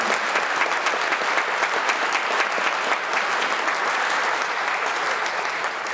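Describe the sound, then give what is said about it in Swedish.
An evening audience applauds Aron Flam and Jens Ganman, authors of the book Älskade public service, steadily, a dense, sustained wash of many hands clapping at once, loud, with no pauses over the whole stretch. “En stor applåd!”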